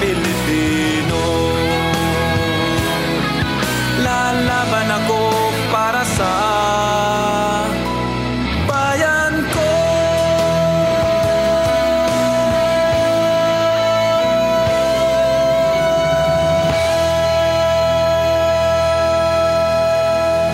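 A man sings a Filipino-language pop song over full, loud band accompaniment. His voice is steady, holding one long sustained note through the latter half.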